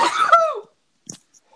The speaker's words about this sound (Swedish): Prosit! Vet du vad jag märkt när man har lyssnat nu när vi har gjort två poddavsnitt? Att du nyser?